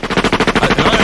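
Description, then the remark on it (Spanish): A machine gun sound effect, played by mistake on a radio show after a search for "machina": a loud, rapid stream of a dozen or so sharp, evenly spaced shots rattling off in about a second, with no voices. “Para, mía, para, para, para, para, puse machina en el, en el search y salió un machine gun.”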